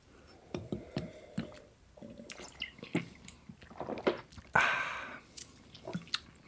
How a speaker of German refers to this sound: Der Nachteil am Flasche trinken nämlich bei Bier und auch bei Wein.